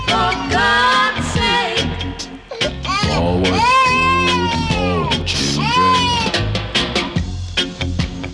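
Babies wail over a steady music track, their high, wavering cries rising and bending in pitch for several seconds, blended loudly into the song rather than standing apart from it.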